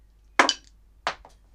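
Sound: dice being rolled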